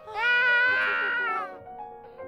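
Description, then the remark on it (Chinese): A baby cries out in one loud, sustained wail with a wavering high pitch, lasting about a second before breaking off into quieter, uneven whimpers. “不哭不哭，妈妈来了。”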